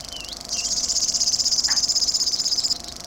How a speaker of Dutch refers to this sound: Dus dit is de springhaanzanger en dit is de krekelzanger, is dus dit. Het zijn inderdaad vogels met een nogal raar geluid.